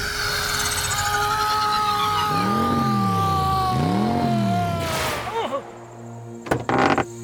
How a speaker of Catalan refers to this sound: un vehicle metàl·lic de quatre rodes propulsat per un motor de combustió interna creu el cel. Un cel jove, un cel que, potser, encara no està preparat per vehicles metàl·lics de quatre rodes propulsats per motors de combustió interna.